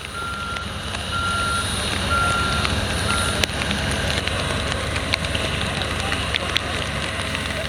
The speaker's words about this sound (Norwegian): Dette er rett og slett lyden av et fly som parkerer, mens regnet slår mot kameralinsene til alle journalistene som filmer at den første dosen med koronavaksine ankommer Sør-Afrika.